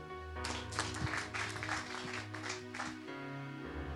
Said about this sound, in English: Clap your hands, church.